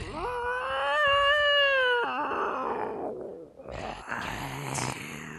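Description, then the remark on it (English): A cartoon cat lets out a loud, drawn-out yowl lasting about two seconds, pitch wavering, then trails into rougher, scratchy hisses and snarls. “Calm yourself, Mad Cat.”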